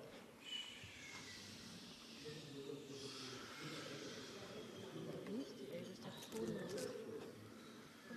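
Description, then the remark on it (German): Several people vocally imitate a flowing river, overlapping whooshing, hissing and low humming sounds into a steady, continuous wash of noise that swells slightly in places. “Macht mal alle den Fluss. Jeder, wie er den, das Flussgeräusch empfindet. Macht mal das Geräusch.”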